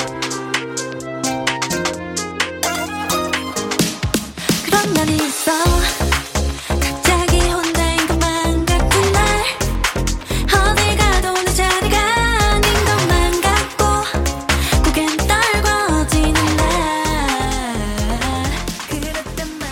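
A polished K-pop girl group song plays loud and full, with layered vocal harmonies over a steady dance beat and bright synths; after a brief sparse intro the arrangement drops into a driving groove.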